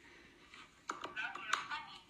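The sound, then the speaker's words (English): A dog presses buttons on a sheet of talking soundboard buttons to communicate with its owner: a few quick, sharp clicks in close succession, mixed with a short, tinny recorded voice saying "love you" and "love you, mom", fairly quiet against a soft background hiss. “So in that short clip, I don't know if you guys heard that very well, but the dog is clicking a button that says love you, and then it clicks another button saying love you, mom.”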